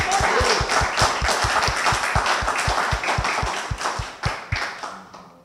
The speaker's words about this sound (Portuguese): Vocês se aplaudiram já? Alguém se aplaudiu aqui? É então, hoje nós vamos fazer isso. Ótimo. Vamos bater palma para vocês? Não, está muito fraquinho. Mais forte, vamos lá? Vamos. Palma mesmo.